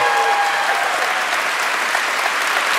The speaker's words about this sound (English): And uh, could we please have one more round of applause for all our guests tonight?